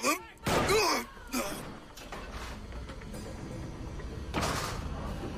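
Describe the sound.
A loud gunshot cracks out near the start as a retired man is shot, the bullet shattering his arm and entering his chest, followed by a low rumbling tail, muffled thuds and another broad blast a few seconds later, with indistinct voices in the background.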